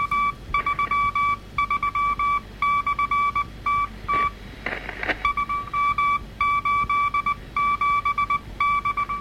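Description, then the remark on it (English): Steady, tone-like radio beeps switch on and off in uneven short and long bursts, repeating over and over as Morse code signals. They sound fairly loud against a faint hiss, with no voices. “What's interesting is it doesn't sound like a regular Morse code broadcast. It uh, it's just repeated signals over and over again.”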